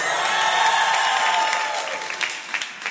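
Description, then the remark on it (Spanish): An audience claps steadily, a dense patter of many hands that holds strong, then thins and trails off toward the end, with a faint murmur of voices beneath. “Ya les da esta pena aplaudir, ¿verdad?”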